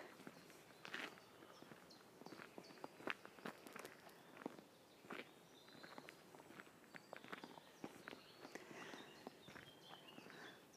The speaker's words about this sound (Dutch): Dat was een jogger.